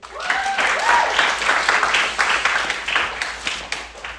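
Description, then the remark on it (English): A crowd breaks into sustained applause, dense overlapping claps filling the whole stretch at a steady loud level, with a few faint cheers or voices rising within it. “Round of applause for that kid.”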